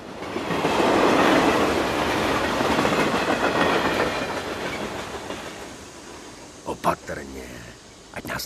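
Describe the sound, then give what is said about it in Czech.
A railway wagon from Zlín rolls along the tracks with a loud, steady rumbling rattle that slowly fades, followed by a few sharp metallic clanks toward the end. “Je, protože ten vagón jede ze Zlína a neměl se podle mě otevírat.”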